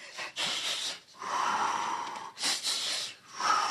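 Loud breaths in a quick repeating rhythm, sharp airy inhales alternating with longer huffing exhales: someone panting through a breathing exercise, demonstrating the breathing for another person to copy while stuck between floors. No talking.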